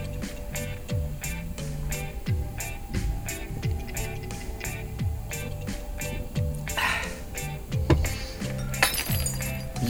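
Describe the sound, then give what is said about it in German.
Dishes and glassware clink and rattle again and again in quick, irregular knocks as a tomcat walks between them, with a low tonal background underneath. “Uh, du, sollst doch nicht zwischen dem Geschirr rumlaufen. Blöder Kater.”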